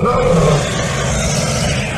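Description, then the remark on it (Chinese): A loud, deep roar from Parker, a golden giant dragon on stage, who takes a big breath and roars hard; it rumbles steadily for about two seconds, growling and gritty with a low, throaty tone and no pauses. “”他先深吸了一大口气，然后用力一吼。”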